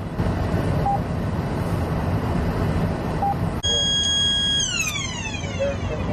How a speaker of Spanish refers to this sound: Así es como detectan las autoridades cuando un auto tiene las placas vencidas. Eh, esas son las alertas que la computadora te da. Cuando tú oyes un zumbido así, eh, quiere decir que, que te está indicando que hay un vehículo que tiene las placas